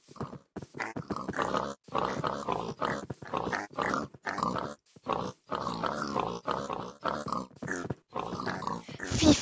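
Video game pigs, spawned by the player, grunt over and over in a dense, continuous stream of short, snorting bursts, fairly loud, with barely a pause for the whole stretch.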